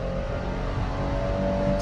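A car engine with automatic transmission drones loudly, a steady low roar with a faint whine that builds slightly toward the end as the driver accelerates. No one speaks.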